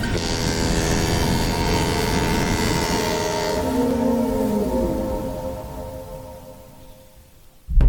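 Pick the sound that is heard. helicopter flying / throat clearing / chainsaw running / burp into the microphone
helicopter flying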